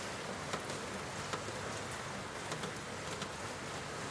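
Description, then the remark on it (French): Steady rain falls outside, a dense, even hiss with scattered brighter droplet taps spread through it, moderately quiet and continuous with no voices. “Vous englober, vous protéger de cette pluie qui tombe à l'extérieur et qui pourtant est rassurante.”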